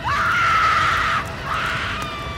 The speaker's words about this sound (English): That was until some years later, when in late December, a lonely surfcaster spotted a dull, orange glow several miles offshore. A faint shrieking was heard that accompanied the apparition.